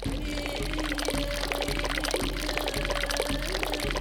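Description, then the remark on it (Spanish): Water is poured steadily from a well for several seconds, a continuous splashing stream with faint, regularly recurring low knocks underneath. No voices are heard. “Fue en ese momento cuando encontramos el pozo y pudimos beber.”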